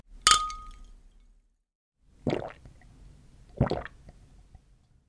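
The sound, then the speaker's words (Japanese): Glasses clink together once in a toast over Celtia, a Tunisian beer, a bright ring that fades over a second, followed by two softer, duller knocks and rustles a moment apart, with no talking. “はいそれでは乾杯乾杯”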